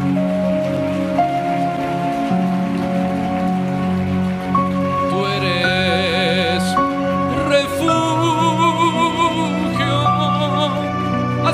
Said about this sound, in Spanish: Dale un aplauso al Señor Jesús.